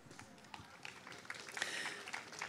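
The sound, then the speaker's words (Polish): An audience at a panel discussion on the water crisis breaks into steady applause welcoming a panelist, a dense, crackling wash of many hands clapping at once that holds at an even level for a few seconds, with a few sharper claps popping out. “Przywitajmy go brawami.”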